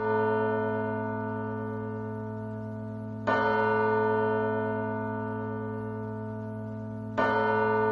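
A deep church bell tolls with a long, humming resonance, struck twice about four seconds apart, each clang swelling over the lingering ring of the last. No voices.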